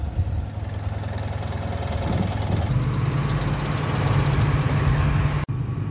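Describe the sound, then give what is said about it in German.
Motorcycle engines rumble steadily, a low idling drone that swells slightly as the motorcycles leave the ticket booth and begin moving onto a ferry, then cuts off abruptly near the end. “Am Kassenhäuschen stehen noch einige Motorradfahrer, die noch mitwollen. Und die kommen jetzt auch mit auf die Fähre.”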